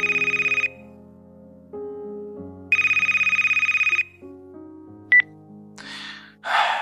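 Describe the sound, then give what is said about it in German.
A mobile phone ringtone plays in two loud, buzzing bursts over a melodic electronic tune, followed by a short beep and some noisy rustling at the end. No one speaks. “Plötzlich klingelte es.”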